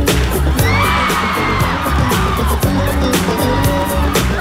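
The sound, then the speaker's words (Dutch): A concert crowd screams wildly as the performer on stage does the moonwalk live for the very first time: a dense, loud wall of shrieks and whoops with high pitched rising cries, punctuated by sharp bangs and thuds throughout. “Maar je hoort wel aan de mensen dat ze compleet gek worden.”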